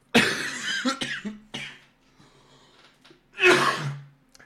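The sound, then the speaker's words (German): A loud cough bursts out, followed by a few quieter breathy hacks, then a pause and another strong cough near the end. No speech, just the coughing fit. “Ja, ich dachte, du, du sprichst jetzt weiter, da bist du so runtergegangen, weil ich habe schon den Husten, Husten ankommen gemerkt.”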